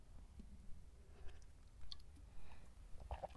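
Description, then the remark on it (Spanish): Quiet mouth noises of someone taking a sip of coffee: a soft slurp followed by small wet swallowing and lip sounds, with no talking. “A veces, pausa para trago de café.”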